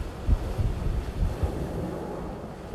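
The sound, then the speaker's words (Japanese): Steady roar of ocean surf at the shore at Oyashirazu in Niigata Prefecture, Japan, with gusty wind buffeting the microphone, low rumbling swells rising and falling throughout, no voices present. “今日はえっと新潟県の親知らずというとこの海に来てます”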